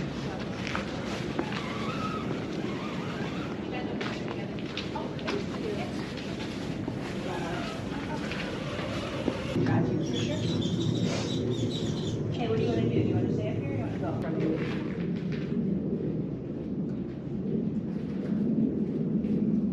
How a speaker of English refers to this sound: Whoa, those raindrops are big. There's a lot of raindrops out there. We'd probably just say it's really raining out there, but if you ever want to talk about the little bits of water, just call them raindrops.